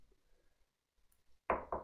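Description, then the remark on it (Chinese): Three quick, loud knocks on a door in an even rhythm, coming after more than a second of near silence; no one speaks. “我正打着电话呢，突然有人敲响了门。”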